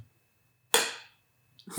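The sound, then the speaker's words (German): A single sharp clink of a coffee mug striking a French press in a toast, a bright ringing tone that fades within half a second, followed by a faint soft knock; no one speaks. “also mein Schenkel klingt anders, aber ich habe meine Tasse an meine French Press äh, gehauen.”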